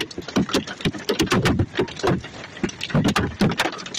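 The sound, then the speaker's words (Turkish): Walnut-sized hailstones pound a moving car in Diyarbakır, eastern Turkey, in a rapid, irregular barrage of sharp, loud knocks on metal and glass, with a steady rumble of driving underneath and no talking. “Diyarbakır'da ceviz büyüklüğünde düşen dolu tanelerine arabasında seyir halinde yakalananlar korku dolu anlar yaşadı.”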